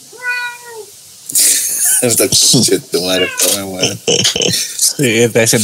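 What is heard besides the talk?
cat meowing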